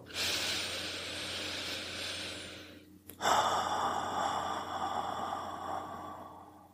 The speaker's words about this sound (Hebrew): שאפתי 3, נשפתי 6, עד כאן. עכשיו, כשאני אה, נושם, אני סופר את הספרה אחת, וכשאני שואף חוצה, אני סופר את הספרה שתיים.